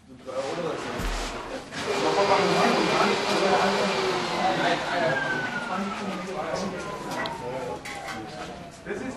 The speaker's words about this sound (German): Viele Detaillösungen erfordern hier Handarbeit, aber manchmal helfen auch Maschinen. Ein mobiler, aber auch sehr lauter sogenannter Plattenzuschneidetisch erledigt in einer Minute den schrägen Kerbschnitt